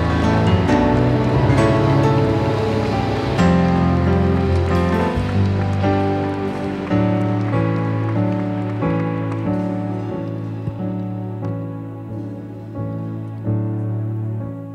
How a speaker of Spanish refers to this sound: Vamos, si vas a aplaudir, apláudele fuerte al Rey, pero fuerte, fuerte al Rey.